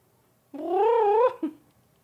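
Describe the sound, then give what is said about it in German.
Cats yowl and scuffle: a drawn-out, wavering yowl lasting under a second, followed by a brief sharp cry, fairly loud with no talking. “Och, diese Katzen. Was tut ihr?”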